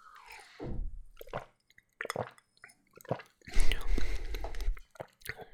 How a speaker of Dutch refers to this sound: En hij ruikt eh, inderdaad een beetje lemon. Er staat vooral blauwe bessen, citroen en druiven op de zijkant. Het zal een beetje tropical zijn. Dat verwacht ik. Ik ga ze een slokje nemen.